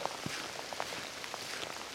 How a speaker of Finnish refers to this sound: ehkä tämä kuuluukin, mutta luonnossa ollaan ja vettä sataa.